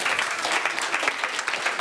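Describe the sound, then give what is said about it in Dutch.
An audience in The Hague claps steadily for Maarten de Vuist of GroenLinks and Jelle Meijners of Hart voor Den Haag, a dense patter of many hands forming a continuous wash of applause at a fairly even loudness, with no voices standing out. “Geef ze een applaus alsjeblieft, jongens.”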